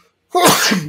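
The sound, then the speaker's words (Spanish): A single loud, sharp sneeze bursts out after a brief silence, with a breathy, noisy burst that trails off quickly. “Perdón. Salud.”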